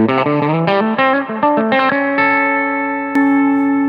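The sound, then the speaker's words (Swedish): Electric guitar played through a tremolo effect placed after the reverb: a quick run of plucked notes gives way to a sustained, ringing chord that pulses gently as it decays, with no voices. “Men nu ligger Tremolot efter reverbet.”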